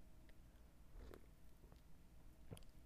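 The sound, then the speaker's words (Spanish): Quiet sipping of coffee: a soft slurp about a second in and another brief sip near the end, with faint mouth and swallowing noises and no talking. “Le voy a dar un traguito a mi café.”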